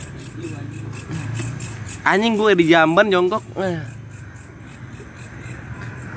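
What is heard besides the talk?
crickets chirping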